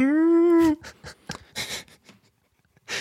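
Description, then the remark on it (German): A person imitates an alpaca's humming with a single sustained, nasal, whiny hum, followed by a few soft breathy puffs and chuckles before a final airy exhale. “Die haben nämlich ein Klo mhm. und die summen.”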